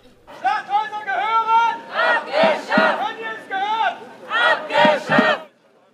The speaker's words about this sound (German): Es ist nicht die erste Demonstration vor den Toren der Kleinstadt, die wir dokumentieren. Doch diesmal ist alles anders. Weißenfels ist wütend.